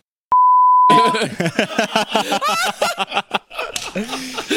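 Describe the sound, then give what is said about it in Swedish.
A loud, steady censor bleep sounds for under a second near the start, then lively overlapping talk and laughter follow right after it. “där får du blipa, där får du blipa, där får du blipa.”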